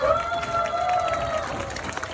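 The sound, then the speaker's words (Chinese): A crowd at a live event claps and cheers to welcome investors, a steady wash of noise, loud and continuous throughout, with a bright whooping tone sliding across the top for the first second or so. “大家好，掌声欢迎投资者！”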